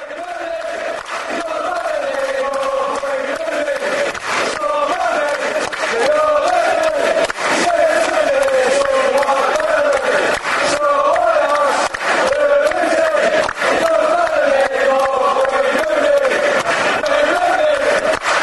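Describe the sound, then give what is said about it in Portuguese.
A large crowd of football fans sings a repetitive chant in unison about Wayne Rooney, calling him the "White Pelé"; the melody loops steadily and loudly for the whole stretch, with a broad, echoing stadium roar beneath the voices. “É assim a música.”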